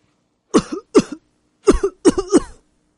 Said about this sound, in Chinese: 贝尔熊蜷在被窝里，微微的发着抖，不停的咳嗽，他还是很难受。